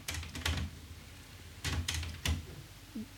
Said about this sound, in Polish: Została taśma cofnięta i w chwili obecnej mm, magnetofon nagrywa sygnały testowe i no, przez to skasuje kilka sekund. No, teraz się cofnęło, znowu się włączyło i w ten sposób dobierze odpowiednie parametry zapisu dla aktualnie ułożonej kasety.